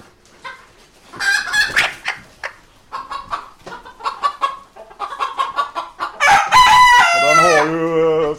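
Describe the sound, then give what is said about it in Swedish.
Chickens cluck in short, irregular bursts, then a rooster lets out a loud, drawn-out crow near the end. No one speaks. “fjädrat ut helt i vingarna så det är inga kycklingfjädrar kvar än.”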